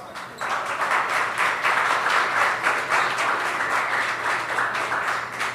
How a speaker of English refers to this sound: So so I want to give yourselves I want y'all to give yourselves a round of applause.